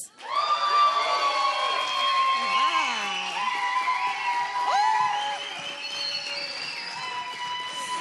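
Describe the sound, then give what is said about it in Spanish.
A loud crowd cheers and applauds without pause as a band arrives at a Friday Intersecciones event, with many overlapping whoops and rising and falling shouted voices over a dense wash of clapping that eases only slightly toward the end. “Bueno, pues demos un aplauso, un fortísimo, fortísimo aplauso, porque ya llegaron y ya están aquí los ritmos y sabores de … en este viernes de Intersecciones.”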